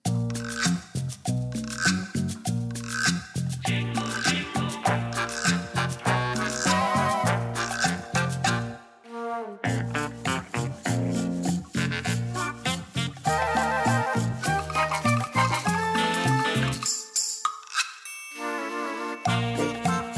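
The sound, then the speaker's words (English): An upbeat instrumental cover of Jingle Bells, full of bright, bell-like chiming tones over a steady bouncy rhythm, played loud with a couple of brief pauses. “To give you a sense of what that means, here's their version of Jingle Bells.”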